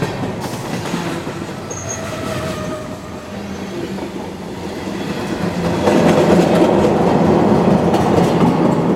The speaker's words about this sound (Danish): imens vi følger skinnerne et lille stykke tilbage, derfra hvor toget kom